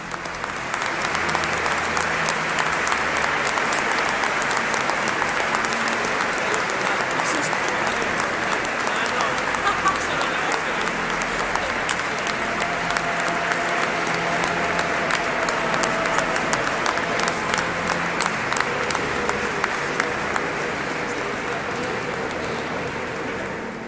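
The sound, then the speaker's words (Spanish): Sustained applause from a large crowd in a cathedral as the new bishop, Monseñor Fernando Prado, walks slowly along the naves blessing those attending. It is a dense, steady wash of clapping that holds at an even level throughout, with a faint murmur of voices underneath. “Eh, escuchamos también algunos aplausos por las zonas en las que se acerca el nuevo obispo.”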